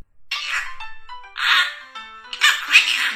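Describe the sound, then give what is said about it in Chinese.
A parrot that picked up speech from its keeper chatters in three shrill, raspy bursts of speech-like mimicry, said to carry a Northeastern Chinese accent. The high, scratchy phrases come with short pauses between them and no human voice. “你听听，这真的是一个鹦鹉说的”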